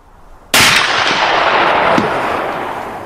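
A loud, sharp gunshot cracks out after a short quiet lead-in and rolls into a long echoing tail, with a fainter second shot about a second and a half later. No voices. Gunshots at Zosu bog in Madona municipality, about half an hour after noon.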